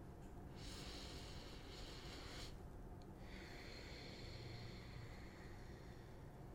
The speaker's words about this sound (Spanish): Y si pueden hacerlo, pues Vamos a ello, cerramos los ojos. Comenzamos con la primera respiración.